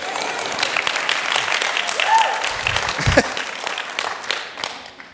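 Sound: audience clapping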